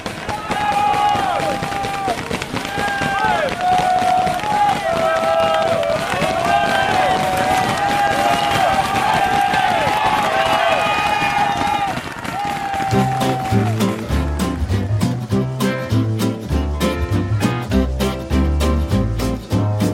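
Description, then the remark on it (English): A dense roadside crowd of Belgian fans cheers and shouts loudly and continuously for passing cyclists as Van Aert comes by in a small group of about 30 riders, many voices overlapping for about twelve seconds before the noise cuts to steady music. “So yeah, it'd be interesting to hear these Belgian guys go off here.”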